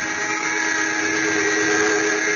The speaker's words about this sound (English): Lamont Cranston and Margot Lane, on the trail of a ring of alien smugglers they suspect of murder, are shot down in a small cabin plane. The pilot dead, the plane out of control is zooming toward the ground.